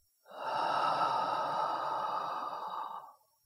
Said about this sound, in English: Let's take a deep breath in through the nose, out from your mouth.